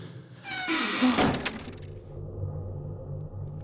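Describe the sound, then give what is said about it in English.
The TARDIS doors swing open with a brief, bright rush of noise, then settle into a low, steady electronic hum that drones on alone, with no voices. “the doors are opened. You know what to do, just step through those doors.”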